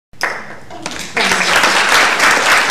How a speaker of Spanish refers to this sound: Gracias, gracias por los aplausos, pero no, no hacía falta.